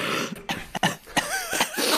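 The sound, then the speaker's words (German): A man coughs several times in quick, broken bursts, fairly loud, with short gaps between the harsh exhalations and no talking. “Ich will gerade mein erstes Wort in dieser Folge sprechen und zeitgleich kommt der, kommt der Huster von ….”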